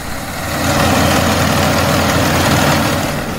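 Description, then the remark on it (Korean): A heavy combine harvester engine drones steadily as it moves busily across a rice paddy, ripe rice grain pouring into large sacks; a loud low rumble with a broad mechanical roar that holds constant throughout, with no voices. “콤바인이 논 위를 바쁘게 움직이고 커다란 자루엔 잘 익은 벼 나달이 끝없이 쏟아집니다.”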